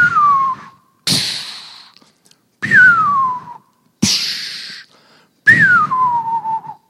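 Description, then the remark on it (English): A voice imitates fireworks three times, each a falling whistle followed by a breathy hissing burst, the pattern repeating in a steady rhythm, loud with no other talk. “It's almost like have you ever been at the fireworks? And at the very beginning, you're, you're listening and you're watching, and it's like, then”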